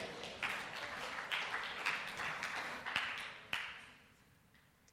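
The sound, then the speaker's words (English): An audience gives a round of applause for some kids, clapping steadily in a dense patter of many hands, with a few sharper claps standing out, then the applause thins and fades away near the end. “We can give those kids a round of applause, right?”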